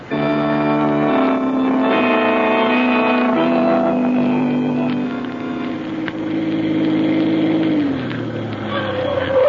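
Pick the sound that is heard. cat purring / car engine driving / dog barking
car engine driving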